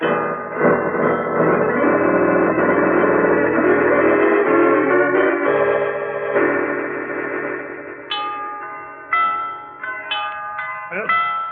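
Tower bells ring loudly in a dense, overlapping peal of sustained metallic tones. Toward the end, individual strikes stand out more clearly as they ring and decay.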